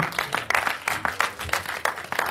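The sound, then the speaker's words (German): An audience applauds together, a dense wash of many hands clapping with a steady, pulsing rhythm that swells at regular intervals, moderately loud and sustained for a couple of seconds. “lass uns denn mal einen Applaus geben.”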